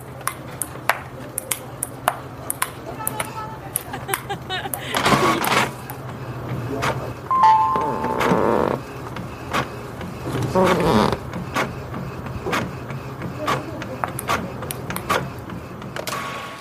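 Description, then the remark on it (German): Busy office ambience: scattered sharp clicks like typing and mouse taps, a few brief electronic beeps, rustling bursts and faint background chatter over a steady low hum. “Da kann sich jeder, dem es jetzt im Homeoffice zu still ist, klassische Bürogeräusche anhören.”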